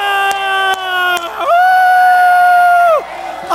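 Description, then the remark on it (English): Loud, high-pitched screaming and whooping from an audience in Omaha: a shorter shout with a few sharp clicks, then one long, sustained 'woo' held for about a second and a half before it drops off. “Scream! Get it out there. Woo!”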